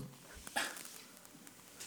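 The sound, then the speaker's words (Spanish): A dog gives one brief, faint yelp-like bark, followed by soft whimpering sounds against a quiet background with no one talking. “pinche perro.”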